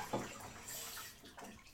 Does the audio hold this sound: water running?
yes